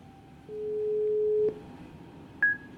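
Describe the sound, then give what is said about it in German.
A single one-second burst of a steady, low telephone ringback tone, heard while an outgoing call connects, followed by a brief higher-pitched beep and a quiet line. “Jetzt rufe ich mal an und mal gucken, ob, ähm, ob Ralf ans Telefon geht.”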